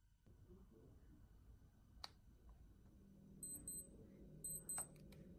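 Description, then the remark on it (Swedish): High, thin electronic beeps from a digital clock, heard inside a tent, come in two quick paired bursts, repeating twice over a low background rumble, with a few sharp clicks. “Det lät som en digital klocka.”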